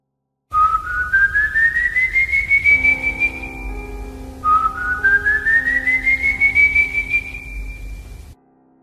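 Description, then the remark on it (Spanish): A person whistles two long, slowly rising notes, one after the other, each sliding upward and holding at the top, eerie and drawn-out over a low rumbling background, evoking the whistles of El Silbón, the ghost of a young man from Venezuelan legend. “Sea como sea, el espectro temido siempre es el de un chico joven cuyos silbidos presagian algo malo.”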